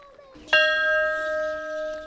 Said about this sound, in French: Qu'est-ce que ça vous rappelle, la cloche qui sonne oh, Ça vous rappelle l'appel du grand docteur.